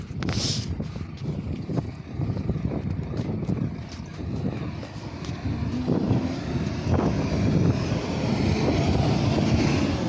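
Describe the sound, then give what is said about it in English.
A large lorry rumbles past outdoors, its deep engine roar building steadily and filling the low end, with gusty wind buffeting the microphone throughout. “The reason why I stopped is because there's a massive lorry going past and it's windy.”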